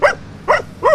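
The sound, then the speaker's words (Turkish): An excited search and rescue dog, taking a microphone for a ball, lets out three short, sharp barks at an even pace, each bright and fairly high-pitched, loud and clear with no talking over them. “her zaman orada köpek aslında kendine bir oyun arkadaşı bulduğunu zannediyor”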